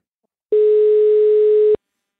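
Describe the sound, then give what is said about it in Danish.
A single steady telephone ringback tone of an outgoing call to a woman living in Hamburg sounds for just over a second, loud and clean, then cuts off abruptly, leaving silence with no voices. “Hun bor i Hamburg-bydelen Erltona, og jeg ringede til hende for at høre, hvad det er, der optager hende ved det her delstatsvalg.”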